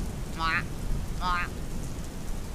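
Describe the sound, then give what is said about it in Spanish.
Steady rain hisses throughout with a low, continuous rumble of thunder underneath, while two brief chirping calls ring out early on, about a second apart. “La lluvia comenzó a seguir al sapo cachetón, pero como era pequeño, lo perdió de vista.”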